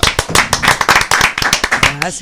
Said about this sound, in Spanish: Un aplauso